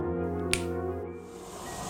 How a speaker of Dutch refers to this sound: Luister maar. Ik knip met mijn vingers en dan mag jij raden waar we zijn.